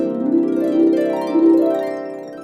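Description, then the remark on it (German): A sustained French horn note wavers and cracks, missing the intended pitch and slipping abruptly to a neighboring pitch a couple of times before settling and fading slightly; a fairly loud brass tone with no voices. “Beim Horn kann es mal passieren, dass man nicht den angepeilten Ton trifft.”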